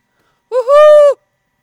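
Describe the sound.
A single drawn-out hoot made by a human voice imitating an owl to call a wild owl in Alentejo, starting with a short wavering lead-in and then holding a steady, fairly loud tone for about half a second.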